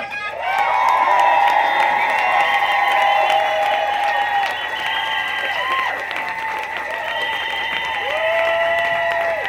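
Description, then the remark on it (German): A large crowd at an event, called on from the stage to applaud themselves, claps steadily throughout, with high cheers, whistles and whoops rising above the dense applause. The noise stays loud and sustained for the whole stretch, with no speech. “Macht's nochmal einen Applaus für euch alle.”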